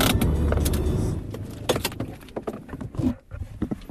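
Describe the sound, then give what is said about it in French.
Inside an idling car arriving at a delivery address, a run of sharp mechanical clicks like a turn signal ticks, followed by the rasping ratchet of a handbrake being pulled up, with no talking. “Voilà, on arrive à la première adresse de livraison. Petit quignot, frein à main.”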